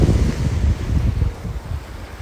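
Outdoor ambience at the sea during a break in the rain, with muddy floodwater pouring into the sea: a steady rush of surf and gusting wind buffeting the microphone, loud and continuous with low rumbling surges throughout.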